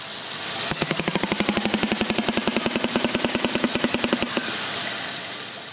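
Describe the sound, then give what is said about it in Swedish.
A swamp animal clicks rapidly from its throat, a fast, steady train of loud, sharp pulses lasting a few seconds, almost like a motor rattling, then stopping abruptly with faint background hiss. “Den så klickar med halsen typ.”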